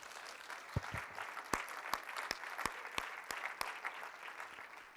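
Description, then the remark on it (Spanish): An audience applauding the Lord during a sermon, a dense wash of many hands clapping with a few sharper individual claps cutting through at a regular pace; no one speaks over it. “Si le vas a aplaudir al Señor, apláudele a Él.”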